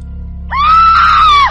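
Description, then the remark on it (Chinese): A terrified human scream from the character Xiaoshi in a Chinese ghost story, frightened by a ghost, erupts after a brief low hum, holding one loud, piercing, steady pitch for about a second before cutting off abruptly. “旁边传来小石惊天动地的喊叫，只剩下一个头的绿姨转过头来，用一种仿佛有点歉意的口吻对小石说：“别怪我。”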